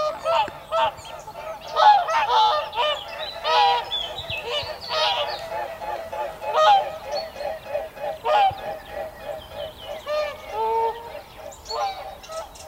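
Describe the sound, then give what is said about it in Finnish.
In the early morning, a flock of geese passes low overhead right past the microphone, dozens of overlapping honks rising and falling in loudness as the birds sweep by, with no one speaking. “Niin, siinä oli kiva parvi aivan päältä.”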